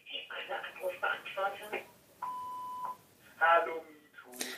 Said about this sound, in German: Okay, jetzt klingelt hier gerade mein Telefon. Ich lasse nur kurz den Anrufbeantworter drangehen, dass es nicht auf der Aufnahme ist.